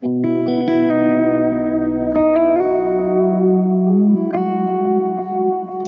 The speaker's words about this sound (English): And th- what's cool about the Boss 500 DD500 it has like two different delays already. So putting that and uh, reverbs, two reverbs, and this actually had three delays.